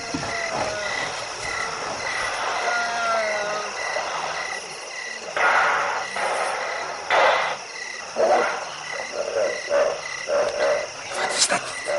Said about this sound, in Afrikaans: Seekoeie.